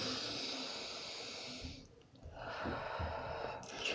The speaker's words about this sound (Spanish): ¿qué tal esos diafragmas? ¿Se mueven más? ¿Sí? Pues estoy respirando, ¿no?